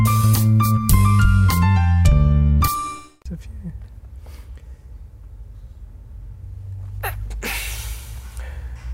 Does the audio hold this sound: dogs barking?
no